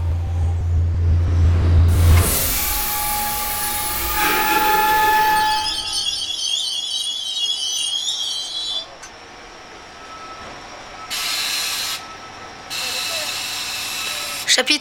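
A loud train rumbles and roars along, then high metallic brake squeals take over as it slows to a halt, followed by quieter bursts of hissing air.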